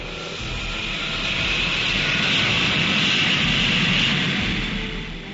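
A loud, sustained roar of Concorde jet engines, broad and rumbling, swelling in over the first half-second and holding steady before easing slightly at the end, with no voices.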